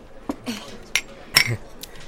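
A few bright clinks of glasses of makgeolli knocking together in a toast, scattered over about two seconds amid soft clatter and a murmur of movement, with no clear talking.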